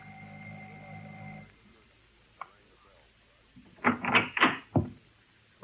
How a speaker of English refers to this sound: There was a light on behind curtains. I rang the bell.